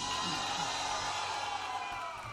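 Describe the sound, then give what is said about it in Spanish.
A large audience applauds steadily for Jesus while scattered voices cheer and whoop with joy, a dense, continuous wash of clapping and shouting throughout. “denle su mejor aplauso al Rey de Reyes y Señor de los Señores. Este Jesús. Gracias Señor. Alguien que dé gritos de alegría.”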